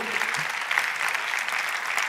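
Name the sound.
audience applause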